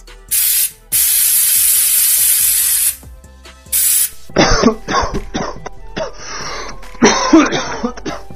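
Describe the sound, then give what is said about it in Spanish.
A person using an aerosol can sprays it three times with a hiss, a short burst, a long two-second blast, then another quick puff, followed by the person coughing and clearing their throat several times. “Dibujé una persona usando un aerosol y una ciudad con muchos autos.”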